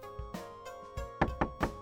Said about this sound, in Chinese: 老婆，开门！我继续敲门，仍然没有回应。